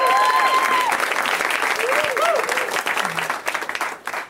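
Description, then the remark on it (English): Loud, sustained applause from a crowd, a dense crackle of many hands clapping with a few cheers and whoops rising over it, thinning slightly toward the end. “Oh, let's hear it for me on a Tuesday.”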